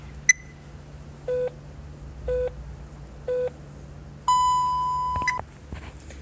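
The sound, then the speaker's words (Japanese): Japanese telephone time signal beeps marking exactly 1:16 p.m.: three short, evenly spaced pips a second apart, followed by a longer, higher-pitched tone lasting about a second, over a faint steady hum. “午後1時16分ちょうどをお知らせします”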